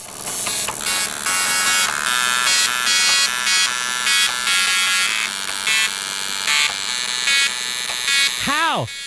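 A dot matrix printer plays a song melody, its print head buzzing and rattling in rapid pitched bursts that form a continuous, loud tune, ending with a brief rising-and-falling squeal.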